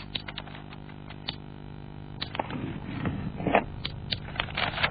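Scissors snip through paper, cutting around the edges to make a paper snowflake, in a quick, irregular series of crisp clicks with soft crinkling of the paper between cuts and no voices.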